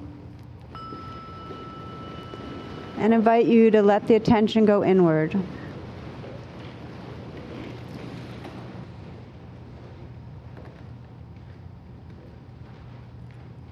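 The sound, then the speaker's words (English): A meditation bell is struck once, its clear ringing tone lingering and slowly fading over several seconds while a person speaks briefly over it, with a low steady hum underneath. “So again, I'm going to just ring this bell”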